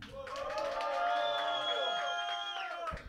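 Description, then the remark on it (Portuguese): An audience at a live show cheers and shouts for a contestant during a vote, for about three seconds: a dense wash of crowd noise with sustained high-pitched yells riding on top, steady and loud before dropping off at the end. “barulho aqui da plateia. Muito barulho para Zin.”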